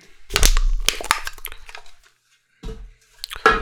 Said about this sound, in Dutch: Is het tijd om een blikje te kraken? Ik heb hem wel leeg gekregen. Dat is weer fijn, want soms heb ik ook een blikje van 500 milliliter. En die zijn wat moeilijker te verhaspelen. In één aflevering in elk geval. Ik ga het blikje kraken.